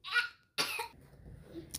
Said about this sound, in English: Also, funny enough, she's pretending to be sick, so she keeps randomly sneezing and coughing because she wants to be like mommy. It's cute, but it's also like, baby, don't pretend to be sick, my love.